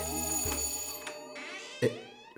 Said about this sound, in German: Er hatte ja keinen Schlüssel, deshalb hat er bei mir geschellt.